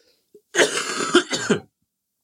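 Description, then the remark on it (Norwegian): A harsh cough lasting about a second, broken into a few raspy bursts that trail off into throat-clearing, then silence. “Dere må bare beklage at jeg må hoste litt innimellom, men jeg har barn i barnehagen, og de drasser med seg alt mulig, eller hun drasser med seg alt mulig rart av forkjølelser hjem.”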